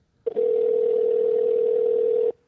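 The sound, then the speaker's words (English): A single steady electronic ringing tone from an outgoing phone call to a friend plays for about two seconds, clear, then cuts off with nobody answering and no voices. “It's probably not going to pick up.”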